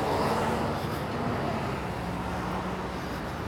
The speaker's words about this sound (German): so ich muss hier mal, sorry übrigens für den Verkehr, bisschen laut, ich muss hier mal über die Ampel stimmt.